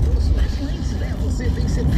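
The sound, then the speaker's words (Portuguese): A car driving over a pointed, unmarked speed bump, heard from inside as a steady, heavy low rumble of engine and tires that stays loud throughout, with someone talking over it. “Yeah, yeah, Outra lombada sem sinalização nenhuma.”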